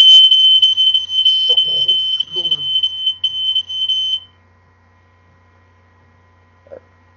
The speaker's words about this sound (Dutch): Was dat het brandalarm? Dat was het brandalarm. waarom ging dat af en waarom zo kort?